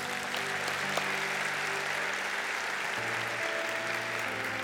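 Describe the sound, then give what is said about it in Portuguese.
Steady, dense applause from a crowd, given for God: a continuous wash of clapping holding at an even level throughout with no pauses and no one speaking over it. “Então dê um aplauso aí, que ele merece.”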